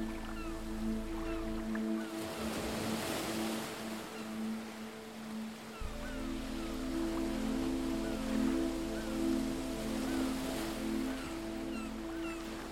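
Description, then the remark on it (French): Soft ocean waves wash in and recede in slow swells on a beach, with a steady low humming drone of sustained tones underneath; calm and continuous, no voices. “votre esprit s'éloigne peu à peu des bruits de la plage et se recentre sur votre silence intérieur.”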